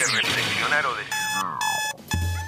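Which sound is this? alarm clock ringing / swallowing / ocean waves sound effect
alarm clock ringing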